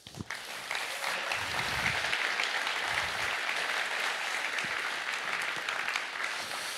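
A crowd bursts into loud, sustained applause, dense clapping filling the whole stretch with a steady roar that holds its level for about seven seconds without any voices on top.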